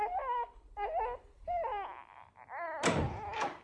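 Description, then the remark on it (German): A newborn baby cries in several short, high-pitched wailing bursts that waver up and down, with a dull thump breaking in near the end while the crying carries on. “Als in der Wohnstube die Uhr Mitternacht zu schlagen begann, fing ich in meiner Mutter Schlafzimmer zu schreien an.”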